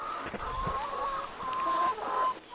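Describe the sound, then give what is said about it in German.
Several chickens cluck and chatter together in a steady, busy stream, with drawn-out higher-pitched calls rising above the murmur, in a henhouse built from an old car trailer. No one speaks. “hat aus einem alten Autoanhänger einen Hühnerstall gebaut, damit die Tiere in der Nacht vor Füchsen, Mardern und Raubvögeln geschützt sind.”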